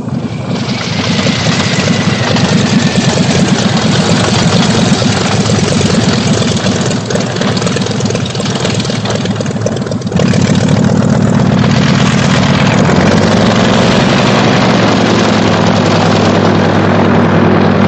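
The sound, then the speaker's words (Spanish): A small yellow propeller plane's engine drones loudly and steadily, then shifts to a lower, settled idle partway through as the aircraft lands; no voices. “una avioneta amarilla aterriza ante la mirada de Antonieta Vasconcelos y sus seguidores”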